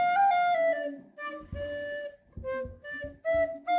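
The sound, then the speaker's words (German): A recorder plays a simple melody of clear, sustained notes with short breaks between phrases, steady in volume, with faint low background sounds underneath. “Cool, eine Blockflöte.”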